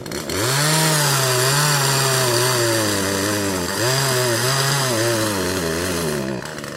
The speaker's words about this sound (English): We got Wayne out here on the chainsaw now. That tree is rotten